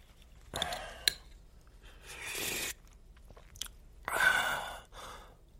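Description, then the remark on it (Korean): A spoon clinks against a bowl as someone carefully spoons up and eats soybean paste soup (doenjang-guk) set on a meal table, with soft slurps and chewing in uneven bursts and a sharp metallic tap early on; no one speaks. “나는 몰래 훔쳐먹기라도 하는 것처럼 조심조심 숟가락을 들어 밥상 위에 놓인 된장국을 한번 떠서 먹어봤다.”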